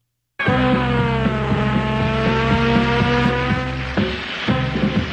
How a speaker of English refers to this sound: That is the beginning of You Can't Do That on Television from Nickelodeon.